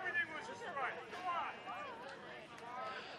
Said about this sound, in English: Crowd thought that was a strike, and they're letting the home plate umpire hear it.